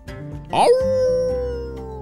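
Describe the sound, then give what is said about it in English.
A fluffy brown dog with a long curly tail, on a beach, gives a quick rising yelp that settles into a drawn-out, steady howl, fairly loud, lasting over a second before trailing off. “the dog responded, wagging his long curly tail, and happily ran off.”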